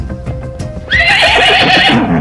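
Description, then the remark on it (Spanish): A frightened mare running loose through the streets lets out a loud, shrill whinny that rises sharply and trembles for over a second, following a stretch of low, irregular knocking that sounds like hooves on pavement. “Ahorita solamente sale como, que va la yegua por las calles.”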